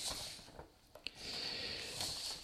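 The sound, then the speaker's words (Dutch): Sheets of paper rustle and crinkle for a couple of seconds, a soft continuous shuffling broken by a few brief crisp snaps, with no one speaking. “Oké, ja, je hoort dat ik eh, papieren heb.”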